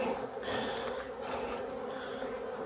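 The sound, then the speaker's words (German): A dense, steady drone of many honeybees buzzing at an open hive as a beekeeper works without smoke, a continuous humming swarm with no speech, ending in a brief louder knock as the queen excluder is firmly knocked off so the bees are not crushed. “Klopfe jetzt noch das Absperrgitter einmal kräftig ab, damit die Bienen nicht gequetscht werden.”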